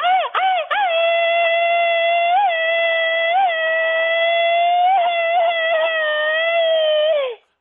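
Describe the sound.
A loud, high-pitched celebratory "machine-gun" shout (grito ametralladora) for a man's birthday, from a single voice, opening with a few rapid stuttering bursts, then held as one long wavering cry for about seven seconds before cutting off abruptly.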